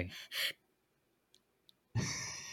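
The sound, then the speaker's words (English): A person imitates a newborn's irregular breathing: two quick breathy puffs, a long tense silence broken only by faint clicks, then a sudden loud, drawn-out breath. “People should probably tell you before you leave the hospital how fucking scary babies breathing are.”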